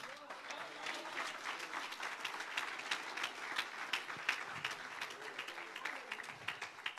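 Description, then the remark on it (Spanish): An audience applauds Christ at a preacher's call, steadily for several seconds, a dense, even wash of many hands clapping with no break, with some indistinct voices mixed into the crowd noise. “Cristo, la roca incomovible aplauso a ese Cristo.”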